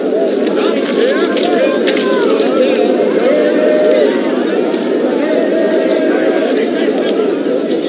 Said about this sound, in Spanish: ¡Palomas! ¡Palomas! ¡Palomas aquí, señores! ¡Palomas!